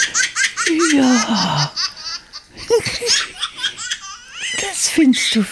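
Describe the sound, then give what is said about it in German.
A baby laughs in repeated bursts of high, squealing giggles and breathy gasps, loud, with a brief pause in the middle before more gleeful laughter. “Also Babylachen ist wohl, wo keiner widerstehen kann, oder?”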